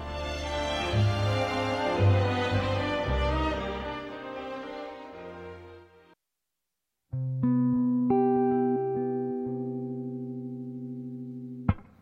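A pop song's instrumental intro plays: rich, full harmonic music for several seconds, a brief silence, then steady sustained synth-like tones that hold and swell, with no voices.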